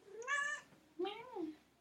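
A domestic cat, a small cat named Mia, meows twice, fairly loud, each call a drawn-out harmonic whine with a falling tail, separated by a short pause.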